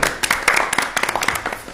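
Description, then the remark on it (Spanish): A short burst of applause from a small group for the full Sangre Geek team, many quick overlapping claps, steady and fairly loud for under two seconds. “Por favor, un aplauso. Un aplauso, un aplauso.”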